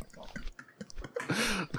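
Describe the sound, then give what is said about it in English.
Wet chewing with irregular crunchy and squishy bites over a couple of seconds, ending in a louder muffled vocal murmur as the mouthful is swallowed. “It's gone. I've swallowed.”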